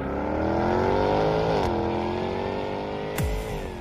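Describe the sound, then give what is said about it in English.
The 575 horsepower supercharged V8 engine of a Jaguar F-Type R sports car roars up through the revs, its deep harmonic growl briefly dipping at two gear shifts marked by sharp clicks, with no voices. “What feeling do you get when you drive the 575 horsepower supercharged V8 Jaguar F Type R?”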